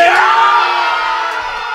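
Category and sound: crowd, crowd cheering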